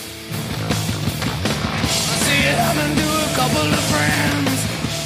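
Loud live rock music plays steadily, with distorted guitars, driving bass and crashing cymbals filling the mix, and a raw, roomy concert sound throughout.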